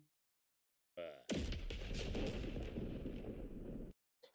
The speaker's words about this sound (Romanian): Just mai ascult o dată la explozie.